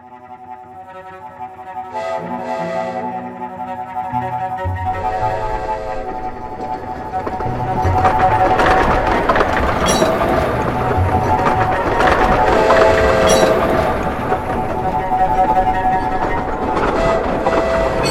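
A train rumbles and clatters through the Boston and Maine Railroad Station, Haymarket Square, Boston, Massachusetts, in December 1867, growing louder and denser partway through, with a sustained metallic whine over the steady clickety-clack of the cars. No one speaks.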